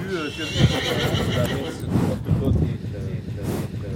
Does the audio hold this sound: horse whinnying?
yes